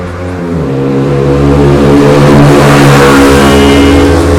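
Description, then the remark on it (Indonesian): A loud motorbike engine revs as it passes by, its throaty drone swelling and holding steady for a few seconds with a slight rise in pitch, and no one speaking over it. “kendaraan apa barusan ya tempat tadi apa itu tadi ada sepeda”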